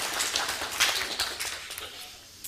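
A small crowd applauds, a dense patter of many hands clapping at once that holds steady for a couple of seconds and then gradually thins out.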